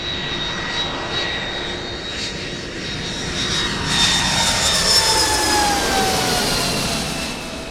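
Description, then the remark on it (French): A loud, steady airplane engine roar with a high whining tone that shifts in pitch, swelling slightly stronger partway through, with no voices present, from a plane arriving at Charles de Gaulle airport in winter. “Quand je descends de l'avion à l'aéroport Charles de Gaulle, le froid, c'est l'hiver ici.”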